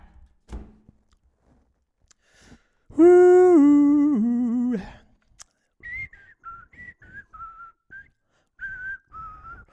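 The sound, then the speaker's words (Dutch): A person whistles a quick run of short, wavering notes at moderate volume, following an earlier loud, buzzy sustained vocal tone. No one is speaking. “Ik moet fluiten van mijn dokter als ik opgewonden ben.”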